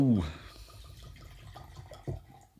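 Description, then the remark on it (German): A drink is poured into a glass, a soft steady trickle of liquid running for a couple of seconds, with some muffled voice sounds mixed in near the start. “Die so, ich schenke dir mal was ein.”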